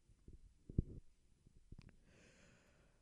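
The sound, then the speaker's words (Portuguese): A quiet yawn: a few soft low thumps and a sharp catch of breath, then a long, airy exhale trailing off. Nobody speaks. “Perdão pelo bocejo.”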